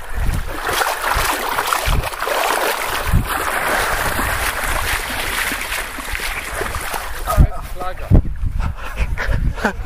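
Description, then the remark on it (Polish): Water sloshes and splashes steadily as people wade out of cold water, with occasional heavier splashes from steps, over constant wind rumble on the microphone and faint voices in the background. “Wychodzimy z wody.”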